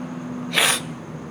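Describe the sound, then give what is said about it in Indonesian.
A single short, sharp sneeze from a person with flu, a bright hissy blast lasting a fraction of a second over a low steady hum. “maafin kalau gue sering narik, gue lagi flu batuk juga bersin terus”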